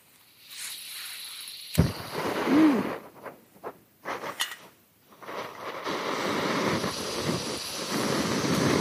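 A camping gas stove burner sparks with a sharp click and roars to life, sputtering briefly before settling into a steady, loud hiss-roar that runs to the end, heating a pot holding 600 millilitres of water to boil.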